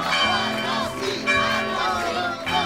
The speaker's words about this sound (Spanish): El cura hizo sonar las campanas de la iglesia en señal de apoyo.